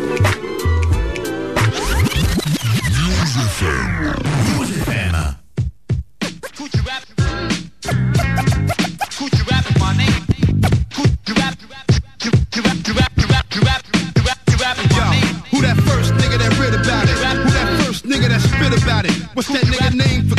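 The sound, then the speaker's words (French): A loud hip-hop track opens with about five seconds of frantic record scratching, then drops into a punchy, steady beat with heavy bass and crisp drums that carries on to the end. “Donc euh, voilà, on enchaîne avec ce son”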